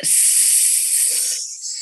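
In a breathing exercise to calm stress, a person who has breathed in through the nose breathes out on a long, steady hissing S sound, bright and sustained for nearly two seconds, easing slightly toward the end.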